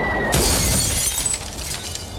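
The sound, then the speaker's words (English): A loud, sudden crash as a glass coffee table hurled off a 20-story building shatters on impact, followed by a bright spray of tinkling shards scattering and settling over the next couple of seconds, with no voices. “Now a stylish glass coffee table.”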